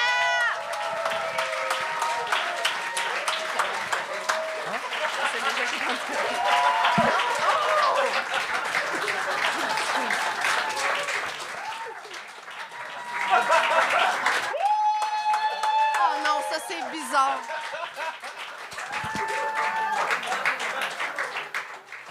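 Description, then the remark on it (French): A crowd applauds a comedian steadily and loudly for about twenty seconds, with whoops and shouted voices rising through the clapping and a brief dip partway before it swells again. “Et puis, j'en qu'on applaudisse l'humoriste jusqu'à temps qu'il commence à parler dans le micro, s'il vous plaît.”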